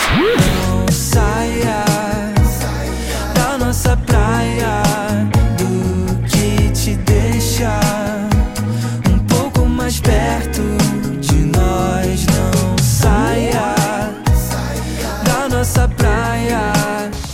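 A pop song plays loud and full, with a sung melody gliding over a steady bass-heavy beat and layered instruments, continuing without pause for the whole stretch.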